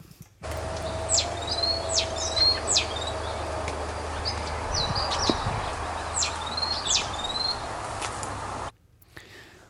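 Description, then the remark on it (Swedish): A great tit sings a series of bright, repeated two-note phrases in mid-May, set against a steady low hum of outdoor ambience, with other songbirds, including a flycatcher, also present. No one talks. “Det var ju bara en talgoxe.”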